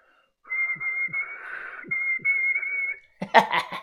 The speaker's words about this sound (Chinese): 谢启荣单手插在病号服的兜里，口中吹着口哨。